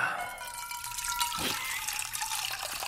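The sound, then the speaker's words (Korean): Water runs steadily into a washbasin, a continuous bright splashing hiss with a brief deeper gurgle partway through, steady in level and with no voices present. “물을 받고요.”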